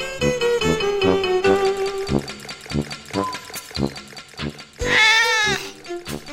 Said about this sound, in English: Moo, says a cow.